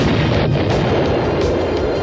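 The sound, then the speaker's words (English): A loud, sustained explosion rumble with deep booming low end and crackling noise, continuous for about two seconds without a distinct single blast, no voices present. “Don't we have any other explosions?”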